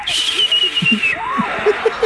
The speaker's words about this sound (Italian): Sì, prima ho sentito il fischio e poi una specie di bucio.